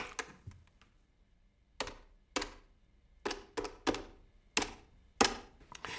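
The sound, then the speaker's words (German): A teacher punching a number into a telephone keypad: a run of about a dozen short, sharp button clicks at an uneven pace, with no dial tones and no voices. “Der Lehrer tippte eine Nummer ins Telefon.”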